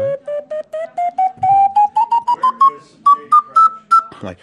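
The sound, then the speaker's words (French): A whistle flute plays a clear ascending chromatic run of short, separate notes, each a small step higher than the last, rising steadily in a solo performance with no talking. “On peut faire du chromatisme.”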